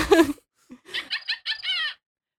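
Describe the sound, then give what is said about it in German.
A voice imitates a witch's cackle as a phone ringtone: a sharp opening shriek, then a brief pause and a run of quick, high, clucking laugh bursts, fairly loud, ending abruptly. “es ist nicht der, der richtige Hexensound, aber so ähnlich.”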